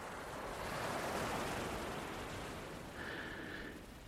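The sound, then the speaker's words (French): Steady ocean surf washes onto a fine-sand beach bordered by some trees and vegetation, a broad continuous rush of breaking waves with no voices, swelling slightly and joined near the end by a faint higher tone. “Vous entendez les vagues, quelques oiseaux au loin.”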